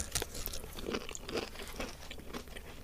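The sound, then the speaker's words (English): Crunchy bites into a biscuit-crumb-coated Gaytime ice cream bar with a toffee and vanilla ice cream centre, during a taste test, followed by steady chewing with repeated crisp crackles over about three seconds, with no one talking. “Um, okay then, let's uh, do the taste test thing. See if it does indeed taste like a hundred-year-old birthday cake, or at least birthday cake to celebrate hundred years.”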